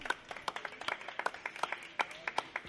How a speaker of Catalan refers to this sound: Vale, aquest, un fort aplaudiment, home.